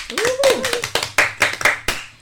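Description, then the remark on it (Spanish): A short burst of applause welcoming a guest on a radio programme at Freies Radio für Stuttgart, Germany: crisp, fairly loud hand claps in a steady rhythm, opening with a brief rising vocal whoop. “Aplausos, por favor.”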